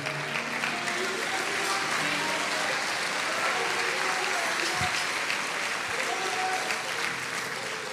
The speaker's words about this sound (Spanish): yo un aplauso al Señor.